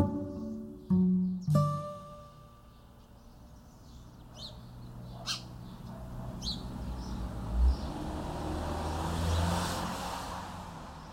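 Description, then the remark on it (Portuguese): Outdoor street ambience with a steady low rumble of traffic and cars passing by, a couple of sharp knocks near the start, and faint bird chirps scattered over the background. “Barulho de rua, sabe, de movimento de rua, de, de carro, de bicicleta, de vendedor gritando picolé e barulho de trem.”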